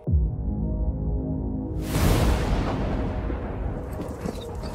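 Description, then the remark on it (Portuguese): A low, heavy rumble builds, then a loud explosive blast bursts out and rolls on in a long, crackling roar of cinematic gunfire and explosions from the trailer for the film John Wick 3: Parabellum, with no voices. “Vai ter muito tiro, porrada e bomba.”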